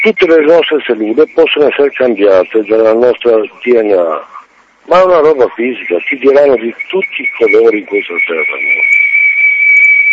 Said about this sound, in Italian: Chiedo scusa per l'eco, eh.